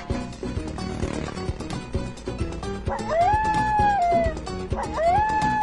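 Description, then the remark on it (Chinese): A coyote howls twice over busy background music: a long, rising, wavering howl held for about a second before sliding down, then a second howl beginning to rise. “爹狗，你看，有一只草原狼。”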